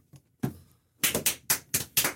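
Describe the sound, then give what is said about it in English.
Hands clapping as a radio show wraps up, starting with a couple of soft, scattered claps, then a quicker run of about six sharp, loud claps in an uneven rhythm. No one speaks. “Yeah, I love the clapping.”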